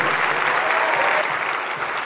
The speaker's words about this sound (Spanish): Si quieres crear libertad financiera hoy en día, un aplauso para Ganoxel.